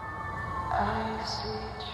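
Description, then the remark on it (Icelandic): City sirens wail steadily all around in a dirty, polluted big city, their overlapping tones rising and shifting in pitch over a constant background rumble of traffic, loud and unbroken throughout. “Það eru sírenur, allt í kringum hana og fólkið er daburt.”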